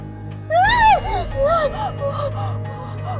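A shrill, high-pitched scream bursts out suddenly, rising sharply before falling into a long, quavering wail that trails off in several wavering breaths. A low steady hum runs underneath.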